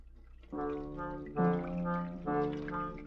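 Water runs from a faucet in a steady, close stream that starts after a brief pause, with a ringing, slightly shifting tone like liquid filling a basin. No one speaks.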